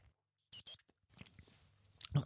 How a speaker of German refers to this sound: Üblicherweise wird ein Doppelpfiff als Rückruf benutzt und der Doppelpfiff hört sich so an.